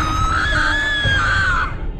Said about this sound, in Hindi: रामू दरवाजे के ऊपर गंगा जल छिड़कता है और जोर जोर से हनुमान चालीसा पढ़ने लगता है चुड़ैल की चीख निकलती है